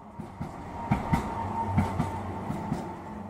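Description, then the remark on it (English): An elevated L train rumbles past, its wheels clacking over rail joints in an irregular rhythm above a steady low roar, with no one speaking. “So, as the L train goes by, we continue floating through the air across the city”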